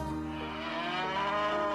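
A cow lets out a single long, drawn-out moo, loud, with a rich harmonic drone that holds steady for nearly two seconds and no talking.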